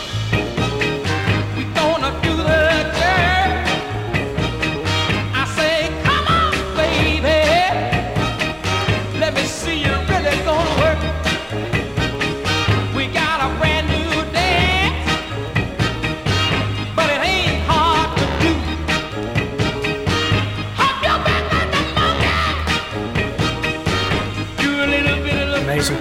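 An upbeat 1960s rock song plays loud and continuous, with a full band, a steady driving bass pulse and bright, busy instrumentation running throughout.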